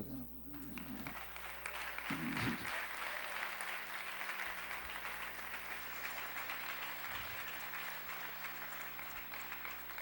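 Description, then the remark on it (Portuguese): A church audience applauds the Lord steadily, a dense wash of many hands clapping that holds for the full stretch without letup, with a brief voice surfacing faintly near the start. “Você perdeu uma grande oportunidade de dar um aplauso ao Senhor.”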